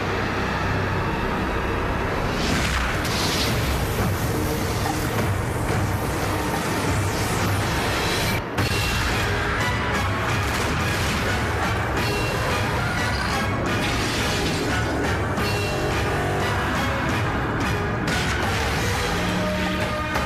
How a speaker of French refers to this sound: minutes d'explosion de Tom Cruise et de musique de Mission Impossible.